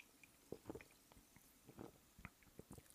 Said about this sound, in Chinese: 让我们一起听一听气泡水的声音。